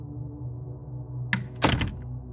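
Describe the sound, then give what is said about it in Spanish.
A door shuts over a steady low hum: a short sharp click followed a moment later by a heavier, louder thud that quickly dies away. “La puerta se cerró al terminar esas palabras.”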